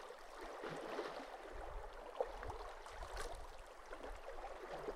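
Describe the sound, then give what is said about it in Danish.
Soft, steady lapping and gentle trickling of calm lake water, continuous and fairly quiet, with faint low rumble underneath and no voices. “Lyden af det rolige vand gør Geo lidt træt.”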